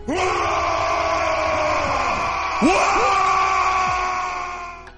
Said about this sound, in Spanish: Cuando el líder piel verde ruge su guag, los orcos le responden entusiasmados, uniendo sus guturales voces para formar un bestial grito de batalla que hiela la sangre